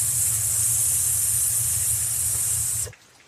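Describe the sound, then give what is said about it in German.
As a breathing exercise, a person breathes out on a long, steady voiceless "sss" hiss while keeping the belly full and round. The hiss holds evenly for about three seconds and then stops abruptly, with a low hum running underneath. “Wenn Sie sich mit dieser Art der Atmung vertraut gemacht haben, beginnen Sie auf einem stimmlosen S auszuatmen.”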